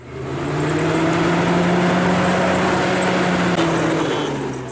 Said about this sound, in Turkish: Hakkari ve Bitlis gibi kar kalınlığının metreleri bulduğu illerde yol kenarlarında biriken tonlarca kar kamyonlarla şehir dışına taşınıyor.